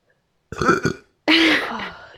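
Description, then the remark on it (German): Two loud burps in quick succession: a short choppy one, then a longer drawn-out belch with a falling, croaky tone, surrounded by silence. “nicht so rumrübsen hier”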